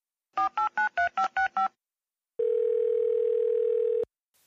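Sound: telephone dialing tones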